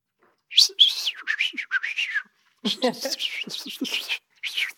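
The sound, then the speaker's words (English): A person whistles an imitation of birdsong: quick, bright chirps and warbling trills in two lively bursts separated by a brief pause, fairly loud, with no other sounds around it. “And this bird was singing with ecstatic joy these notes.”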